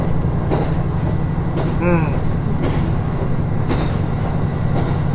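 A train on the Nemuro Main Line (Hanasaki Line) between Nemuro, Akkeshi and Kushiro, Japan, rumbles steadily along the rails with a constant low drone, faint periodic clacks of the wheels, and a brief high-pitched squeal or tone partway through.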